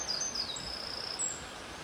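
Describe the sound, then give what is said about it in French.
Small birds chirp and sing with thin, high, faint calls in a forest along the GR13 trail near Avalon, over a steady rushing wash of the Cousin river flowing right beside the path. “On a le petit sentier le cousin qui chante juste à côté de nous, les petits oiseaux dans la forêt.”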